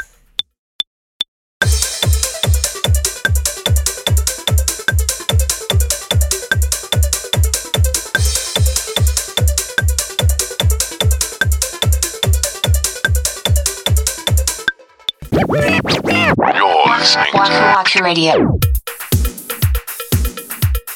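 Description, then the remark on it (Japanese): Rapid, bleepy synth arpeggio notes from an arpeggiator, which mechanically breaks up a held chord, ripple in a steady, even pulse over a thumping beat, then the music shifts near the end into a busier, sweeping section. No one speaks. “コードをですね、和音を押さえてるだけで、勝手にその音を分解して機械的にアルペジオを弾いてくれるような、ね、機能でございます。”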